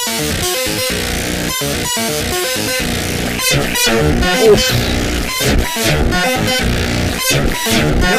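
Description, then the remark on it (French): Harsh, dense electronic noise from a Noise Engineering modular synthesizer demo, a Ruina Versio 10HP stereo distortion module with an Ataraxis Iteritas, with blaring horn-like tones and stuttering rhythmic gaps cutting in and out, loud and chaotic throughout with no talking. “Démo avec Ataraxie.”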